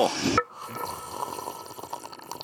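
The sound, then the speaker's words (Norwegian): A loud, wet slurp from someone eating bursts out for a split second, then fades into quieter, moist mouth and liquid sounds. No one speaks. “Du slurper.”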